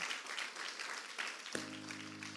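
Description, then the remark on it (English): A crowd gives God a big applause, clapping steadily in a dense, continuous wash of applause, and partway through a sustained organ-like chord enters underneath and holds to the end. “How many of you can give God a big applause?”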